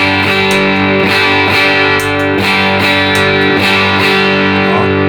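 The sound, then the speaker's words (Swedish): An electric guitar plays through a clean boost effects pedal that has been switched on, giving a thick, driven, full-bodied tone, strumming loud chords in a steady rhythm with no voices. “Den flyttar fram, den flyttar det. fram ljudet och ger den lite mer kropp så att den bara låter lite muskligare och kommer lite längre fram i ljudbilden.”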